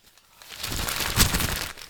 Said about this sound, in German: Wollen wir mit der Zeitung rascheln?